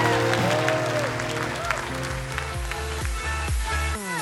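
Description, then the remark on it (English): A large audience at Bethesda Church claps and cheers in sustained, dense applause, a standing ovation for Jesus, while keyboard or organ music with a stepping bass line plays loudly underneath throughout. “Can we give Jesus the greatest ovation of the day?”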